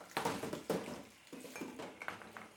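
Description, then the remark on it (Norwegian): Dishes being washed in a kitchen, with plates and cutlery clinking and clattering in quick, irregular bursts against a soft wash of running water. “Se for deg at du står og tar oppvasken på kjøkkenet.”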